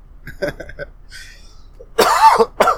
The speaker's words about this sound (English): Excuse right, my, so. my coughing there.